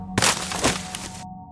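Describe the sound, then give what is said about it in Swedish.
A loud crash of a person tumbling down from a huge wooden nesting box, two heavy cracking impacts with splintering clatter lasting about a second, then only a low hum remains. “Jag kände mig svimfärdig och ramlade ner från den väldiga häcklådan.”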